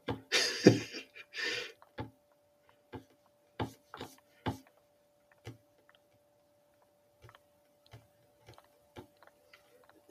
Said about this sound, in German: Shit, ich muss umblättern.